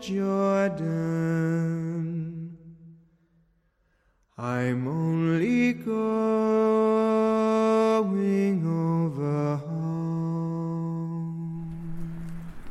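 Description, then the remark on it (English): A film theme song sung by a lone voice, slow and mournful, with long held notes, a brief pause midway, then the melody resumes clear without accompaniment. “what you just heard was the theme music in 1917.”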